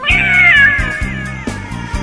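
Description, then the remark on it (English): A cat lets out one long, drawn-out meow that slides downward in pitch, clear over a steady, pulsing low musical beat that continues after it fades. “You turn back around, and staring you face to face in the mirror is a cat.”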